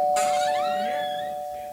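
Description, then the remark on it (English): A single electronic doorbell chime rings out clearly, its bright tones gliding and fading over about two seconds with no talking. “Maybe it's a, do you have a different doorbell?”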